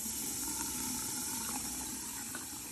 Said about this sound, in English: A news reporter in Jackson recently posted a video of the dark brown water coming out of her faucet. And it's just really stomach churning and just disgusting to watch.